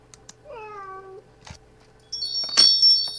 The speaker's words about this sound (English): Those cats, I swear. I am going out there. I am going out there. Those cats, I am going to show them cats once and for all.